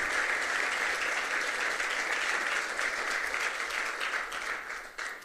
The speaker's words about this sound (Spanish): Así que déle un aplauso a Dios por su vida.